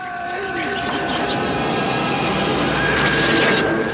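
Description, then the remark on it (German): A small engine drones steadily and loudly for a few seconds, its buzzing hum holding a fairly constant pitch with a slight rise toward the end, like a lawnmower running. “Der Rasenmähermann.”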